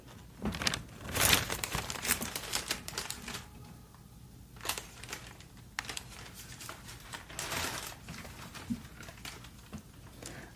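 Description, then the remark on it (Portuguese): A plastic shopping bag rustles and crinkles in irregular bursts, with sharper crackles where it is gripped and shifted, then quieter handling rustles trailing off, as it is set down next to the listener. “Vou deixar a sacola aqui pertinho de você.”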